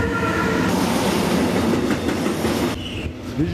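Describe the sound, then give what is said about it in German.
A freight train rumbles loudly past on the track right beside a home in Österreich-Winkel, on the right bank of the Rhine, its wagons rattling and clattering steadily over the rails, with a brief high squeal of wheels near the end. No one speaks. “Güterzüge rattern hier in engem Takt vorbei.”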